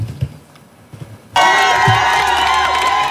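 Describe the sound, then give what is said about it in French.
After a second of low murmur, a crowd suddenly bursts into loud, sustained cheering and shouting for the world's first buyer of Apple's virtual reality headset, with high whoops and excited voices rising above a dense roar of applause. “Si cet homme est autant acclamé, c'est parce qu'il est le premier acheteur au monde du casque de réalité virtuelle d'Apple.”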